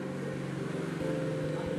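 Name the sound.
motorcycle engine passing by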